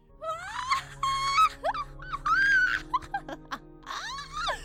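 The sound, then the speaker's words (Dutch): A voice imitates a hoarse, creepy witch's cackle, loud, in a string of strained, wavering bursts that swoop up and down in pitch, with no words spoken. “En na die woorden kwam er een luide, enge, gruwelijke, afgrijzelijke, vettige, schorre, majesteu... Ehm, ja, lach dus.”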